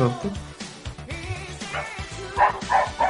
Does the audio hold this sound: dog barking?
yes